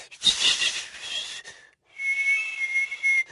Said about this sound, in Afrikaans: Uh eh, maar maar dis nog nie regtig fluit nie. Maar maar daar was klank.